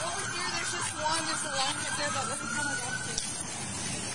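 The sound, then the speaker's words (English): A police siren wails steadily, partly buried under loud, rushing background noise and the murmur of people talking. “You hear all the lights and sirens?”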